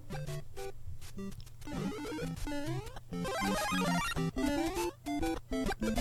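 Retro video game music plays: bright synthesized tones in quick stepping arpeggios over a steady, buzzy synthesized bass line, loud and continuous with brief gaps, no voices.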